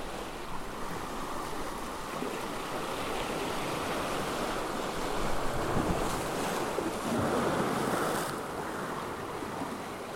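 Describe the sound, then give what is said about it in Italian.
Sea waves surge and break against rocks in a steady wash of surf at the tip of the peninsula at Capo di Leuca, where two seas meet, on a sunny afternoon, swelling louder twice toward the end, with wind rushing across the microphone and no voices. “Eri seduta sugli scogli, al sole, ad ascoltare l'incontro dei due mari, sulla punta estrema del paese in cui hai scelto di vivere.”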